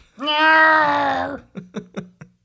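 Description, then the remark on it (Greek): A cat gives a drawn-out, steady call, then breaks into four quick, clipped chattering chirps in a rapid rhythm, clear with no one talking. “Αυτό είναι γάτα που κουβεντιάζει.”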